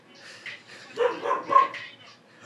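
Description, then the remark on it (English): A male puppy only a few months old lets out a quick run of high, yappy barks, three or four sharp yips bunched close together, moderately loud, with no one talking. “But um, he, he's only a few months old, so like we, we gotta give him a he's A sometimes. Yeah, he's a puppy.”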